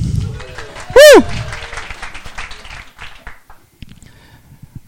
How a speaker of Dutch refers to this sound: Applausje voor mijn assistent.